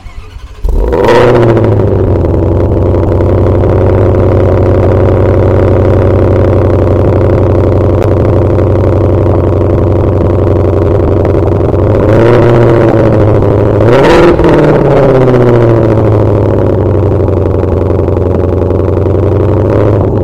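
The powerful V8 engine of an American Shelby GT500 starts with a sharp burst, then settles into a deep, loud rumbling idle through the exhaust outlets, with a couple of brief revs blipping up midway.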